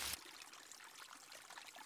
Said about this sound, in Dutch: En die is inderdaad een stuk breder. En dat is de bovenslinger. En dat is een van de beroemdste beken van Winterswijk. Onder andere ook bekend eh, van het markante gebied Bekkendelle.